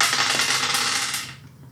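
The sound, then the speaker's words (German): Dice rattle and clatter across a hard tabletop on the last throw of a game, a quick burst of bright clicks, fairly loud, then fade out as they settle. No one speaks. “Wenn du jetzt noch dreimal würfelst, das ist ja natürlich.”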